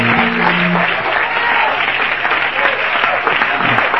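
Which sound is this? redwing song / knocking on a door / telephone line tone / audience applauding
audience applauding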